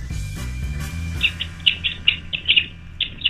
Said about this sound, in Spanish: Sí, sí, suena como un pajarito.